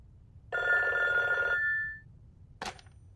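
A telephone bell rings once in a loud, sustained trill lasting about a second, then a sharp click follows as the receiver is picked up. No one speaks.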